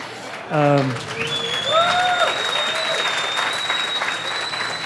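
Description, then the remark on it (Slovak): A studio audience breaks into steady, sustained applause, a dense patter of clapping that stays loud throughout, with a brief cheer at the start and a high whistle ringing over it. “To si zaslúži ešte teraz potlesk.”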